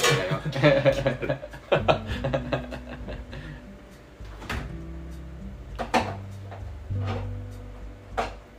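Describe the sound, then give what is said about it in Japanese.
A knife taps against a cutting board in a quick burst of chops as food is cut while cooking during a radio talk, then a few scattered single cuts follow, with kitchen clatter and muffled voices talking underneath. “どれだけこの切ってる音が入り込んでるのか”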